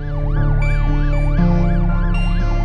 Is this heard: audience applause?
no